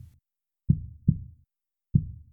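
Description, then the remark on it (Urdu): A deep, muffled human heartbeat thumps in lub-dub pairs, two double beats with a pause between, low with no voices. “مگر ہم اسے محسوس تو کر سکتے ہیں چلیں اپنے دل پر ہاتھ رکھیں اور ذرا سنیں دل کی دھڑکن آپ سن رہے ہیں یہ آپ کا دل ہے”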